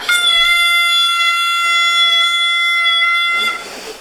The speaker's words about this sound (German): Jetzt ist aber die schöne Tröte, jetzt kann ich das gar nicht verwenden. Alter. Ja, dann tröte jetzt nochmal. Ja, ich tröte jetzt einfach nochmal.